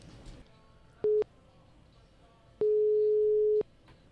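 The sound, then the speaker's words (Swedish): A steady single-pitch phone ringback tone, heard while phoning a magazine, sounds as a short blip, then a clear one-second tone after a pause, heard over a quiet line with faint background murmur. “vi eh, ringde upp tidningen Ridsport”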